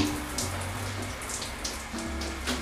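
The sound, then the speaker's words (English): Shower water runs in a steady hiss with splashing droplets throughout while a person stands in the shower, and a faint low hum underneath. No one speaks. “I'm in a shower, sharing my thoughts.”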